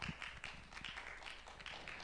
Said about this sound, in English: Let's give it up. There, there's some claps going on here.